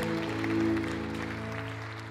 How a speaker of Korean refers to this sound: 주님의 고백으로 영광과 경배의 박수를 올려드리며 나아갑니다.